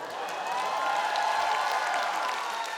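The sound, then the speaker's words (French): A theatre audience in a full hall applauding between two scenes of a performance of Le Malade imaginaire, many hands clapping together into a dense, steady, dull wash of sound that holds at an even, fairly loud level throughout, with no voices standing out. “Entre deux scènes, les applaudissements emplissent la salle d'un bruit sourd.”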